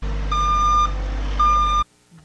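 Two long, steady electronic beeps from a vehicle backing up, sounding close over a low, constant engine rumble that cuts off abruptly afterward.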